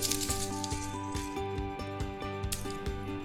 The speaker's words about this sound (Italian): Allora, rumore di bigliettini.